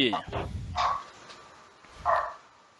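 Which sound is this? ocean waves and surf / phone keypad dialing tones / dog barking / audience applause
dog barking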